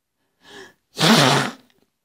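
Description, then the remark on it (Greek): A short sharp intake of breath followed by a loud, broad, noisy blast through the nose lasting about half a second, with no talking. “φύσισε τη μύτη του με θόρυβο και μετά πρόσθεσε με μία φωνή τρεμουλιαστή.”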